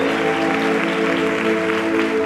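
An audience applauds for the Lord Jesus at an evening service, a dense wash of clapping that stays loud and even throughout, with a sustained tonal hum running underneath.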